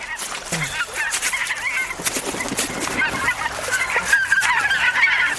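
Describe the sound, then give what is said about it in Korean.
A noisy flock of wild geese at a riverside honks continuously, many overlapping loud calls, with bursts of cackling and wingbeat-like flutter throughout, no voices. “저기 보이는 게 뭔지 아느냐? 거위 아닙니까요? 그래, 야생 거위지.”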